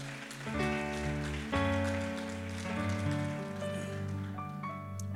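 A church audience claps hands steadily for several seconds before being seated, a dense, continuous patter of hands blended with sustained keyboard or organ chords underneath.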